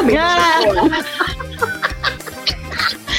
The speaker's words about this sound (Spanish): mamá, traje esta gallina con huevos